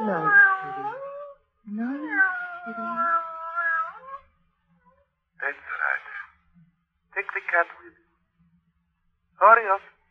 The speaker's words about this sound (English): Yeah, that's a handsome cat you've got there, miss. It's a shame you're putting him out of the way. It, it has to be done. He has a stomach infection, quite incurable.